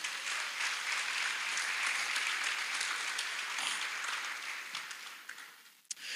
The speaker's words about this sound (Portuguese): Vamos dar um aplauso bem forte para Jesus.